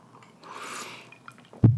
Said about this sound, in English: There's ice in it. Yeah, you can hear a uh, little, little, little cheers here to our, our foray. A little sippy sip.